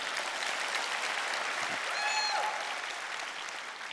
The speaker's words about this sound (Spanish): Gracias, Señor. Un aplauso a Cristo. Gloria a Dios.